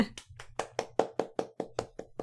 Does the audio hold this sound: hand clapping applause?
yes